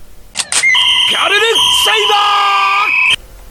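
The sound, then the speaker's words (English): A loud, shrill blue fang whistle shaped like a wolf head is blown, sounding one long call of about two and a half seconds with a wavering, bending pitch partway through before cutting off abruptly. “The whistle called out.”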